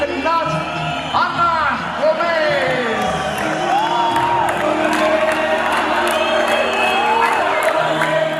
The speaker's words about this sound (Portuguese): depois foi-lhe feita uma grande homenagem num estádio de futebol com milhares, dezenas de milhares de pessoas e o seu nome foi gritado Ana Gobes como agradecimento.